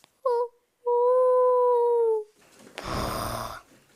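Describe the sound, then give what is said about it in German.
A voice mimics a ghostly howl, a short hoot followed by a long, steady, drawn-out wail, fairly loud, then a brief burst of breathy noise. “keine Ahnung, wie der Geist klingt. Huhu.”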